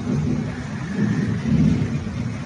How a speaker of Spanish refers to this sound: Así que, ah, oh, los truenos, qué rico la lluvia.